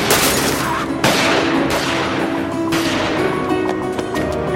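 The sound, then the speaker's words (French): A burst of gunfire after Garib pulls out a gun as people fight and kill each other: several loud, sharp shots crack out at irregular intervals, each leaving a long reverberant tail, over a dense, noisy background. “Garib a sorti un flingue”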